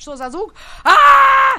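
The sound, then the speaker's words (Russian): A voice imitates a dog howling: one loud, sustained, steady-pitched howl lasting under a second, right after a brief spoken question. “вот они так кричат, они просто воют.”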